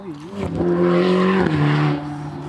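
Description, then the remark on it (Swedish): A Ferrari sports car's engine roars loudly in a steady, droning note that shifts pitch briefly midway, with a broad hiss of squealing tires layered over it before it eases off. “Jag har ju varit och åka en Ferrari.”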